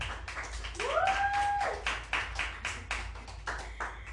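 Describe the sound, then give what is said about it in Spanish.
A crowd applauds with dense, steady clapping for about four seconds, with a short rising whistle cutting through near the start, welcoming a sociology graduate introduced as a guest on a program. “Romperá los mitos a propósito de la interrupción del embarazo y pues les pido un fuerte aplauso para ella, por favor.”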